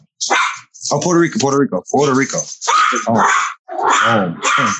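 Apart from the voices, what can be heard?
dogs barking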